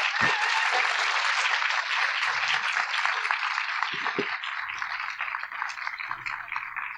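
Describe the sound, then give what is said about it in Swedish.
Sustained audience applause for an interview guest, a dense wash of many hands clapping at a steady loud level for the full seven seconds, with no voices over it. “Så ge henne en varm applåd.”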